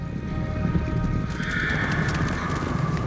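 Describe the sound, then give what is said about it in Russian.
Steady clip-clop of a white horse's hooves, with a high, drawn-out whinny rising over the hoofbeats about halfway through and carrying on to the end. The horse wears a golden bridle. No one speaks. “Дженнет схватила его белого коня за золотую уздечку и вырвала поводья из его рук”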